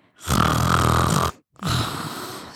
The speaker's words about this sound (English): It sounds like a man is snoring. And I'm like, what the hell? I realized my dog, I left my dog out there, and my dog snores like a grown 50 year old man. so loud. Oh you know, he, he's a pit mix.